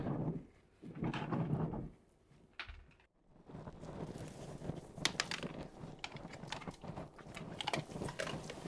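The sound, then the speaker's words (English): A can's seal gives way with a short scraping crack, then dry kibble pours and scatters in a dense, continuous clatter of small hard pieces, fairly loud, as someone digs into the can of kibble by hand. “It's raining kibble.”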